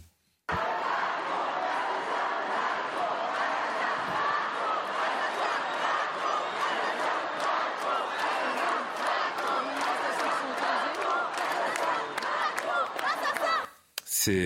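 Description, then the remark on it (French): A large protest crowd chants and shouts slogans together in a street in Paris, near the Place de la République, a dense, continuous roar of many voices with rhythmic pulses, sustained loudly for about thirteen seconds before cutting off. “Voici le, le genre de slogan qu'on pouvait entendre aujourd'hui, cet après-midi, dans la rue de Paris, vers la place de la République.”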